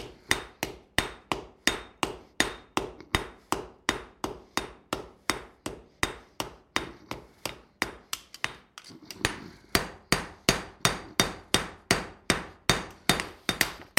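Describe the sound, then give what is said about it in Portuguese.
Steady, rhythmic hammer blows on metal while forging sheep-shearing scissors, roughly three sharp ringing strikes per second, loud and unbroken except for one brief pause midway, with no talking. “Portanto, a tesoura começa assim,”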